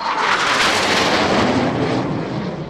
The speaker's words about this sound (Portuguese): Esse tipo de motor, que usa uma turbina para girar o compressor, é chamado de turbojato. E os caças britânicos Gloucester Meteor, ou em português, Meteoro de Gloucester, usavam dois turbojatos, um em cada asa.